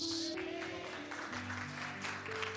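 An audience applauds the Lord in a steady, continuous wash of clapping that holds at an even loudness, with sustained musical tones humming underneath throughout.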